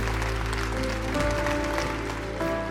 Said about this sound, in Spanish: Le damos un aplauso a toda la gente que ha recibido al Señor en su corazón.